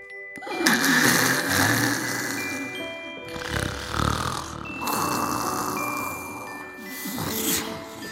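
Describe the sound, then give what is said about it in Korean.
A woman snoring, with about four long, rough, rasping snores repeating in a slow, steady rhythm. The snores are fairly loud and stand alone with no talking. “정적을 깨는 낮은 소음. 그것은 그녀의 코 고는 소리였습니다.”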